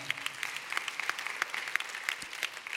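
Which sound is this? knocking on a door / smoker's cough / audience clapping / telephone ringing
audience clapping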